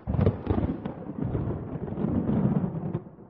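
A clap of thunder from an approaching summer storm bursts out sharply, then rolls on as a loud, crackling low rumble for about three seconds before easing off. No voices are heard.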